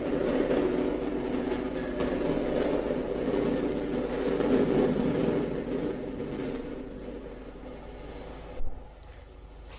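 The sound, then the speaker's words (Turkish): A steady, heavy rumble of a train rolling along gradually fades and eases as it slows and stops at a small station, Bozova, ending with a brief clunk before the noise settles to a low, quiet hum. “Kompartımanda ellerim ensende kilitli bu soruların cevaplarını düşündüğüm sırada tren bir yerde duruyor.”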